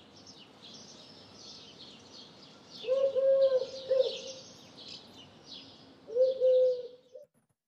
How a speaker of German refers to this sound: Ihr seht also diese Taube, in dem Futterhaus.